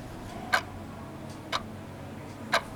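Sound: clock ticking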